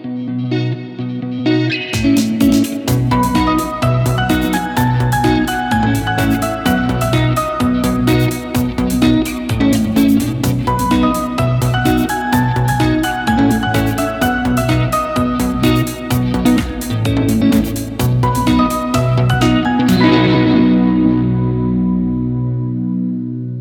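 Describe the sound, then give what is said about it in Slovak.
An instrumental jingle plays on its own: a loud, steady beat under heavily effected, distorted, chorus-like tones with a repeating melody, ringing out over the last few seconds. No voices. “A po zúške sa zase počujeme.”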